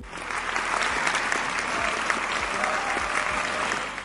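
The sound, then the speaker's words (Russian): A crowd applauds steadily, dense overlapping clapping holding at an even, fairly loud level for about four seconds with no voices over it. “Ей тут можно аплодисменты.”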